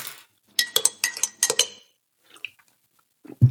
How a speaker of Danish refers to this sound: Lad os, øh, lad os da lad lige røre i koppen så. Ja, lad os gøre det.